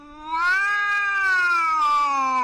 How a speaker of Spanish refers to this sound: el maullido del gato, me hizo reaccionar cayendo de rodillas.